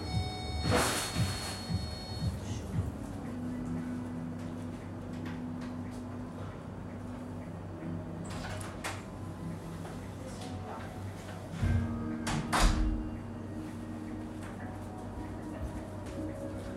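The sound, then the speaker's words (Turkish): A door is opened and later closed, with a sharp clatter near the start and a few knocks and thuds further on, over a quiet hum. “kapı. Geliyorum.”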